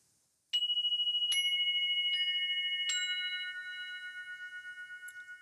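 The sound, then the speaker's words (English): Meditation chimes ring out in four bright strikes, each a clean high tone that layers and hangs in a long shimmering sustain, slowly fading with a gentle pulsing beat. No one speaks. “And um, just before we close this out, we may as well come to a state of peace and coherence with some amazing chimes.”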